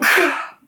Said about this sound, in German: Entschuldigung. Gesundheit.